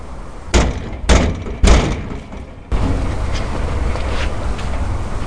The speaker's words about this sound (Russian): Я постучал в дверь, кто-то кричит через дверь вызвать полицию.